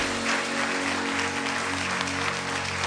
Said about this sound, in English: Give God a big hand of praise.